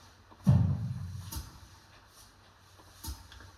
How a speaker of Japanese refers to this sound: で、さっきの例のドン。ドンもちょっとリバーブ入れて重めに。ね。